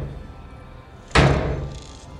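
A single heavy bang on a metal truck door, loud, with a short ringing decay that fades over about a second, preceded by a quiet low rumble and no voices.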